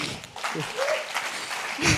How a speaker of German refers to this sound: Geben wir ihr einen Applaus.